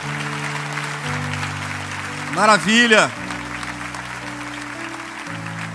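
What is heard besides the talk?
audience applause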